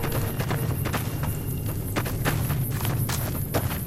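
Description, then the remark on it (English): Quick, steady footsteps run along in a fast rhythm, each step a soft thud over a constant low rumble of background noise, with no voices. “We're running quite a ways here.”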